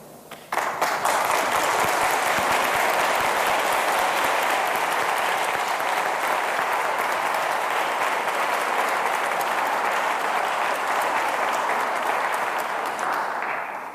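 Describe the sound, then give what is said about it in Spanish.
A large audience in a church breaks into loud, sustained applause, dense steady clapping that holds for about thirteen seconds before tapering off at the end, with no one speaking over it. “Más que un aplauso, os pido por favor una oración por él,”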